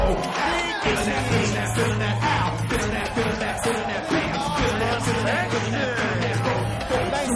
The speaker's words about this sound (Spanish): Toda la gente anima y aplaude a ambos lados del escenario, que tiene forma de pasillo.